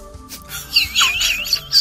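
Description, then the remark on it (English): A bird chirps and warbles in a quick series of high, bright, clear notes, with no one speaking. “Oh, but look, a bird.”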